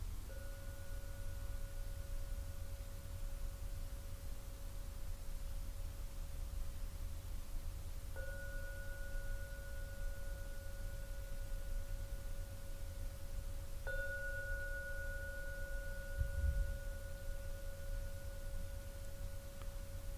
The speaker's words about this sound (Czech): Třikrát zazvoním na zvon. Prosím, vyčkejte, až dozní poslední zvonění. To bude váš signál k vystoupení z meditace.